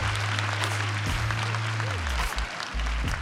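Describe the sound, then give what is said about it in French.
Steady applause from wedding guests as a couple exchange vows by the ocean under a veiled tent decorated with white orchids: dense continuous clapping with a low hum underneath and a few faint voices mixed into the noise. “C'est au bord de l'océan, sous une tente voilée ornée d'orchidées blanches, qu'ils échangent leurs vœux sous les applaudissements de leurs proches.”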